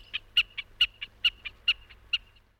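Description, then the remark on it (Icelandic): A common snipe's song: a steady, rhythmic series of about ten sharp, high chipping notes, alternating louder and softer, repeated quickly and evenly with no voices. “Þarna heyrðu við ljúvan söng hrossagauksins”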